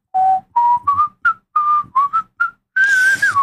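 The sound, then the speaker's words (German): A lively whistled tune from Peter and the Wolf, a run of short, clear notes stepping upward, then a longer wavering note at the end, loud and with no talking. “Ich werde tänzelnd mich vorbewegen äh, und die Musik von Peter und der Wolf”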